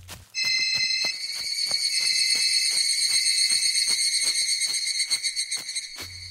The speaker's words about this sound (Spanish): Era como un chillido de alguna clase de insecto.